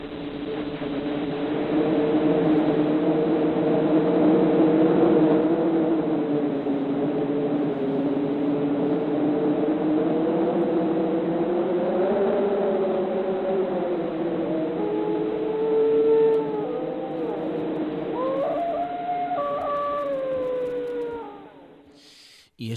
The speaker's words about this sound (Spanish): Ocurre también con otros sonidos, como por ejemplo este de, de un perro aullando con el viento por ahí ululando.